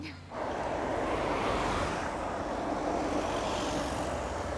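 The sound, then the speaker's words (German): A car engine roars up sharply and holds a loud, steady rush of noise as it accelerates hard, filling the whole stretch with no one talking. “Und richtig aufs Gas gedrückt. Und richtig. Oh, ihr zeigt, was er kann.”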